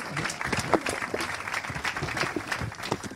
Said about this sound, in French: Félicitations, on peut les applaudir bien fort, ce trophée de l'innovation.